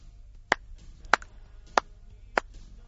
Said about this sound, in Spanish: es el sonido de unas palmadas grabado con una sencilla cámara anecoica en condiciones asépticas, sin eco.